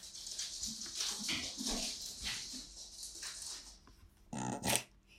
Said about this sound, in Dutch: Maar, um, sorry, als je, als je lawaai hoort, is het mijn konijn die uh, happy hour viert daarachter.